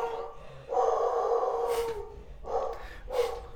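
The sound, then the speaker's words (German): A dog lets out a long, drawn-out howl lasting over a second, then gives two shorter, sharp barks in quick succession, loud. “Geisteskranker Hund. Der Hund ist wirklich geisteskrank.”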